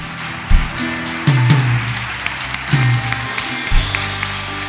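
An audience at a Spanish-language church service claps steadily after a prayer, giving applause to the Lord, in a dense, continuous wash of applause, with low keyboard or bass notes sounding beneath it.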